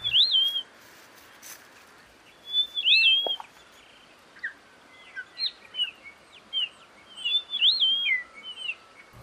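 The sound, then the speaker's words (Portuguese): A grey monjita (primavera), a grey and white bird about 22 cm long, gives repeated short, high whistled calls in irregular bursts, clear over a steady background hiss, with no one talking. “Mas a gente vai falar de uma outra primavera que na verdade é uma ave que leva esse nome de primavera.”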